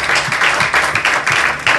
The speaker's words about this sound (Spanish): Dele palmas otra vez, aleluya.